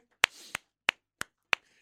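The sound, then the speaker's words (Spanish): A handful of sharp, crisp hand claps for a just-finished show segment, six in all, spaced unevenly with brief gaps of quiet between them, sparse rather than a full crowd's ovation, with no voices. “Es un éxito mis estimadísimos compatriotas, vamos a darnos un aplauso para lo que fue este segmento.”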